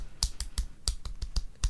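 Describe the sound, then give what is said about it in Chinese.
A thin, weak one-handed clapping rhythm of about eight soft, sharp taps in a quick patterned beat, with a brief pause midway and no voices, made by people holding microphones in the other hand. “一种单手 好虚弱的感觉， 一种单手很难拍手，因为我们手要捏着麦克风嘛。”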